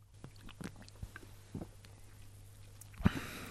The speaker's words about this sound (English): Well, it smells lovely. I'll just take a sip now.